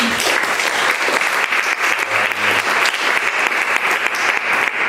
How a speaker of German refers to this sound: Ähm, bitte Applaus.